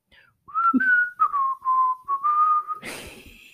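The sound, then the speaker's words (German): A single person whistles the theme tune of the cartoon Nils Holgersson, a steady mid-pitched melody of sustained and sliding notes in short phrases, ending in a burst of breathy noise. “Kommst du drauf? Nee. Nils Holgersson.”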